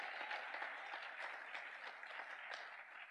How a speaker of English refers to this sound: You see, the reason why you give that little patty cake clap is because you've never been under pressure to meet the budget.